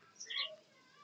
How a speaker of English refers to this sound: You can hear the birds probably chirping in my background because I'm outside